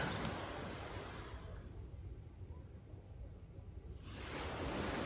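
Ocean waves wash onto the shore in a broad, hissing roar that recedes into a low rumble mid-clip, then surges back up loud as the next wave breaks.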